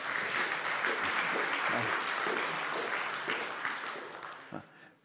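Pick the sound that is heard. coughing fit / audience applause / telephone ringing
audience applause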